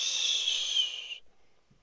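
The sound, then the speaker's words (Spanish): A shrill, steady steam whistle from something passing by hisses loudly for just over a second, like a pressure cooker venting, then cuts off abruptly into near silence. No one speaks. “Es como una olla presión, ¿no? Y por eso suena acá.”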